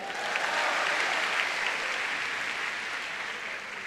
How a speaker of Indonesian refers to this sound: Ya boleh tepuk tangan, boleh tepuk tangan.